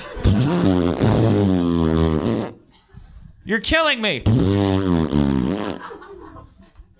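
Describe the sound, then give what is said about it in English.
Someone blows two long, buzzy fart noises with their mouth, low and loud, each lasting a couple of seconds, with a short spoken remark between them. “Well, it sounds like you're making a shit sound with your mouth.”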